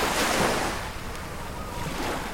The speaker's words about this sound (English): the slow lapping of the waves, and the gentle spray carried by the soft evening wind.